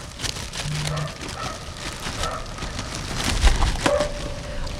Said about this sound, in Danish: nu, nu roder jeg lige lidt øh, med min plastikpose